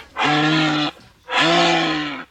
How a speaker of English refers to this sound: This one has a big hump in the desert. Oh, a camel! A camel!